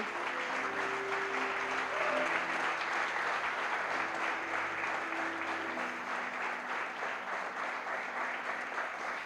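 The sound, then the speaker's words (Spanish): A church audience applauds Jesus loudly and steadily, dense clapping from many hands sustained for several seconds, with faint tonal music or voices underneath. “¿Cuántos pueden dar un aplauso bien fuerte a Jesús hoy?”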